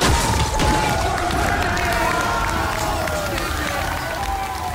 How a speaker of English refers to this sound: We're in. We are at DreamHack, and holy crap, there's a lot to do. you've got just thousands of people playing computer games all at the same time.